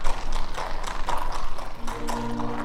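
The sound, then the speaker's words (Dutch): Steady clip-clop of horse hooves, a series of crisp, evenly spaced hoofbeats at a walking pace, moderately loud, with a faint low hum entering toward the end. “Onze koning reed te paard nevens de batterijen.”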